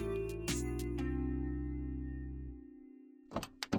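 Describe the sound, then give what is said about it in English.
A steady low engine hum idles and then cuts out, with a couple of sharp knocks early on and a quick series of clunks and rattles at the end, as a passenger gets into an app-ordered, holiday-themed four-door car and shuts the door. “The festive four door arrived, and with my recorder on, I got in the car.”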